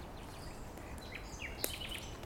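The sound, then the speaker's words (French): Faint, high chirps and twitters from small birds drift in and out over a soft, steady background hiss, with one brief sharp tick partway through. “Les petits oiseaux qui chantent.”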